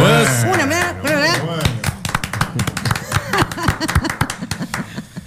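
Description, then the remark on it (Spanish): A sung line fades out, then an audience in the stands breaks into loud, dense applause: rapid, irregular claps that keep going for several seconds, with voices calling out over them. “Bajan los aplausos desde la tribuna.”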